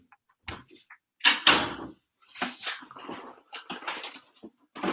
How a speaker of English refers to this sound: i'm just going to close the door here